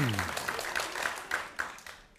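An audience claps together in a dense burst of applause with a few sharper individual claps standing out, steady at first and gradually thinning out over about two seconds.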